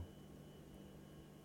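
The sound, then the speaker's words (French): A refrigerator's steady, low running hum fills the room, quiet and constant, with a faint high whine layered over a soft mechanical drone and no voices. “Bon, désolé pour le bruit du frigo.”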